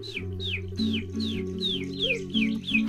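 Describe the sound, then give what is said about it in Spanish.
Chicks peep in a quick, steady series of high, downward-sliding chirps, about eight in a row, over a soft sustained musical drone with no talking. “Y los pollitos empezaron a llegar.”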